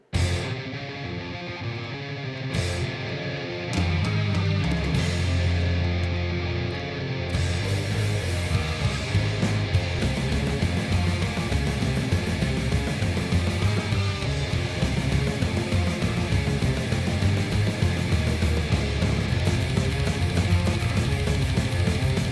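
Loud, dense metal song with distorted guitars over a rapid, mechanically steady programmed drum machine beat, playing continuously at full intensity with no voices.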